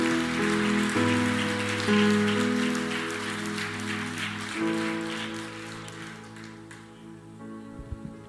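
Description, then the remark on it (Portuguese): An audience applauds the Lord in a dense, steady wash of clapping over sustained keyboard chords, the clapping thinning out and fading over the last second or so. “Alguém pode aplaudir ao Senhor? Alguém pode aplaudir?”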